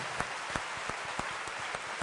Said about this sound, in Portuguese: Como encerrar um culto desse? É só louvando ao Senhor. Vamos aplaudi-lo com as nossas palmas? Ao Senhor, ao Senhor.